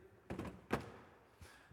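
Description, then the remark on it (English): A drawer slides and shuts with a soft wooden thunk, followed by a couple of quieter knocks, all fairly faint with no voices. “We put, put a drawer out, bam, put him in here.”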